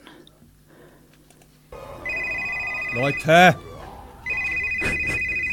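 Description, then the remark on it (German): A mobile phone ringtone plays loudly, a bright electronic melody in repeating bursts, while a person exclaims briefly over it. “Machen wir euer Handy aus! Genau, macht mal eure Handys aus.”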